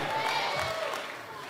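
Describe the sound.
A crowd cheers loudly and steadily, a dense wash of mixed voices with some clapping, holding at a fairly even level for under two seconds.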